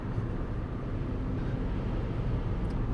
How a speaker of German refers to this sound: Wie man vielleicht hören kann, Fahrgeräusche hat man natürlich jetzt schon durch die Reifen und äh, der Rest ist Fahrtwind. Heute ist auch insgesamt noch mal ein bisschen windiger, deswegen ist es vielleicht auch noch mal ein bisschen lauter.